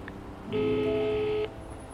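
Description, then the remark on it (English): A single steady electronic telephone tone, like a keypad beep, sounds for about a second as a phone number is dialed at a bus station, clear, against a quiet background with no talking. “I pick up the phone and dial Mummy.”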